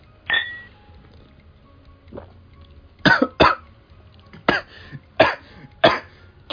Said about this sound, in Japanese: ラジオなのにこんな、むせる音入れていいのかよって感じしますが、ちょっとね、ごめんなさい。めっちゃ気管に入った。